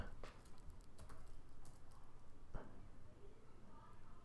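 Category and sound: household object, computer keyboard typing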